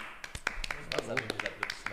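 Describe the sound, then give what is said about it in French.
A few people clap to welcome a guest, a quick, irregular patter of sharp, crisp smacks lasting a couple of seconds, with some voices murmuring underneath. “On s'applaudit.”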